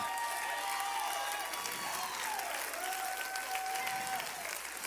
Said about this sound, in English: Some of you need to clap your hands. Some of you need to stand up and give God glory and stop taking the credit.